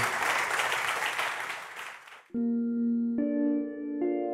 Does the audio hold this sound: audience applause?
yes